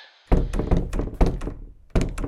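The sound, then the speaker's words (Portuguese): A door thuds shut with a heavy impact, followed by a quick series of loud knocking thumps and rattles, then another hard bang near the end. No one speaks. “Quem é que fechou a porta?”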